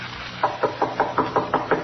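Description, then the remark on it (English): A quick, steady series of about eight knocks on a door, evenly spaced, heard alone over a faint hiss with no voices. “Couldn't be them, Dixie. They wouldn't knock. Who is it?”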